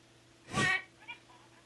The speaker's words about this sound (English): what kind of parrot is it?